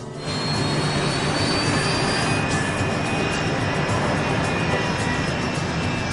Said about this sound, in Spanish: Hoy están pilotando un avión británico BAE 146 para trayectos cortos. Con unos silenciosos motores turboventilados, está diseñado para vuelos cortos por zonas densamente pobladas.